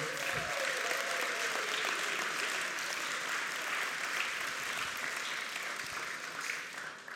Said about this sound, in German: Wow, wirklich, ich möchte mal ein Mega-Lob an euch loswerden. Gebt euch mal gegenseitig einen Applaus.